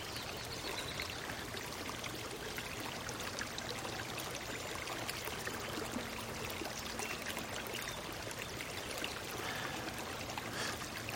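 Steady rushing of river water flowing past the riverbank, a continuous broad wash of sound with faint trickles and splashes, no voices, holding an even level throughout.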